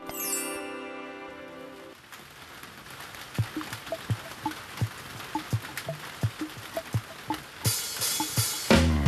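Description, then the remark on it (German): A short tonal musical swell fades into a steady hiss of heavy rain on a cold day, with crisp, irregular drips and plinks landing on top and a louder noisy rush at the very end. “Wieder regnet es fürchterlich.”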